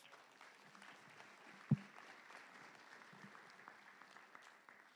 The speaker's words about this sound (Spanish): Démosle un aplauso a Dios, hermanos